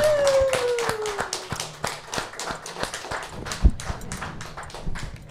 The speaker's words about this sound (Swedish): Woo, applåd för dem.